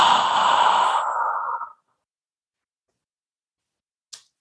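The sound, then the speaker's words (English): A single long, breathy exhale, voiced like a soft sigh, fading out after about a second and a half, followed by silence and a brief faint click near the end. “Sound and the exhale has another sound.”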